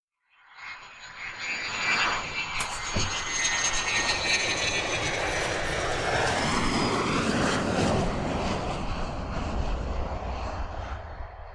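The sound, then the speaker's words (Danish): F-16 fighter jets of the Danish air force's Fighter Wing landing at Skrydstrup air station, Denmark, returning from an exercise: a loud, steady jet roar swells in within a second and holds, topped by a high, slightly shifting turbine whine, with no voices. “Vi kan ikke gøre så meget andet end at køre ud af Victory Avenue og se F-16 flyene lande.”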